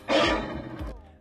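A loud animal roar at the start of a song bursts in and rasps for about a second, swelling again briefly before cutting off, with no talking over it.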